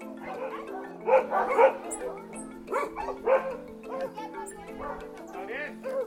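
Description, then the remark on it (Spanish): Several dogs, a neighbour's dogs out on a walk, fighting with the household's own dogs, bark and yip in a rapid, overlapping flurry of sharp, loud bursts, with a steady low hum running underneath throughout. “Cristina suele salir a caminar con sus perros que siempre, siempre se pelean con los nuestros.”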